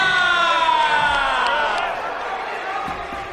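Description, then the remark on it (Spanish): A large arena crowd at a boxing event applauds and cheers the ring introduction of boxer Jeremiah Nakatila from Windhoek, Namibia, in a steady, dense roar, with scattered whoops and sharp claps rising out of the din, slowly easing off toward the end. “Ahí está el africano, 1.78 de estatura recibiendo el aplauso de la gente”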